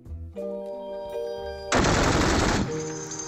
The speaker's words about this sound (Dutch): Zo klinkt oorlog volgens u. En als ik u zeg dat dit de oorlog in het voormalig Joegoslavië is, dan ziet u het vanzelf.